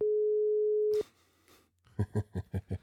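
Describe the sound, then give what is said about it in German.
A steady phone tone holds for about a second, breaks off, and after a short pause a run of quick, evenly spaced busy-signal beeps pulses loudly as a call reaches someone already on another call, with no one speaking. “Also er, er, er telefoniert gerade und in, in, der Sekunde, wo ich auf Anrufen klicke, schreibt er mir, ich soll ihm vorher Bescheid geben, weil er am Telefon ist.”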